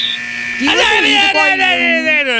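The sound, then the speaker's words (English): A harsh electronic timer buzzer goes off, blaring steadily for a couple of seconds with a slightly wavering, rising pitch, loud. “we could have a follow up conversation, of course, but that's the timer.”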